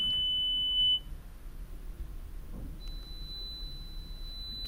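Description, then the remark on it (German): Hearing test tones played to a customer fitted with her first hearing aid: a steady, high-pitched pure beep sounds for about a second and stops, then after a pause a fainter, slightly higher tone comes in and holds, with no talking. “Sagen Sie einfach mit einem deutlichen Ja Bescheid, wenn Sie den Ton leise beginnen zu hören, damit ich das hier vermerken kann.”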